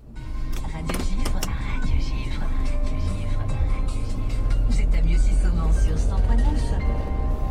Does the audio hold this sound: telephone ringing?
no